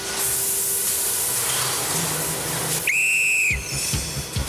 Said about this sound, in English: So in so in they go. Will you start the fans, please?